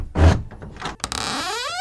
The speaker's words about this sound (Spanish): Una puerta se abrió a un costado de esa colina, que conducía a una habitación muy iluminada.